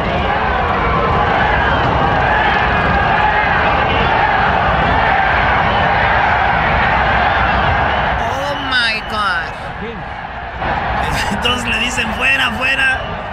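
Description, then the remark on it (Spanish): A huge crowd at the inauguration of a new baseball stadium in Mexico roars and boos President Andrés Manuel López Obrador, shouting 'fuera', in a dense, continuous wall of noise. A voice over the loudspeakers then cuts in while the crowd keeps shouting underneath. “Eh, bueno, fue Choco y sí, lo abucharon, le gritaron fuera.”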